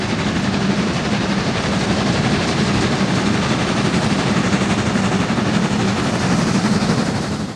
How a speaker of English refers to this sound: And now, time, my friend, for a chance to uh, listen to a great um, intermission here. We have steam train locomotives.